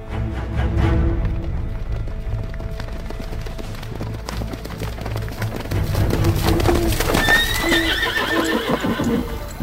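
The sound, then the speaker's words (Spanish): A horse neighs loudly with a rising, quavering whinny near the end, while hooves clop steadily throughout amid busy outdoor background noise; no one speaks. “Y ordena al mando de caballería que prepare a Genitor. Quiero que mi caballo lleve hoy sus mejores galas.”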